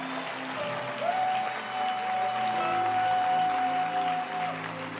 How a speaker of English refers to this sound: Is it beautiful? Clap your hands.